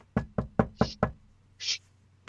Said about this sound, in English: Okay, you hear you hear a knock on a door,